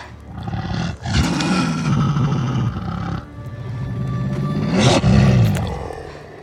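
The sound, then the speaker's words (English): Deep, rumbling growls of a Belgian Malinois dog named Angel swell into two long, snarling bursts, loud, with a brief break between them, used as the voices of Nymeria's wolf pack. They sound like wolves. No one speaks. “and then I had the opportunity to do the return of Nymeria scene when she returns to visit Arya with her wolf pack and every voice in that is my dog Angel.”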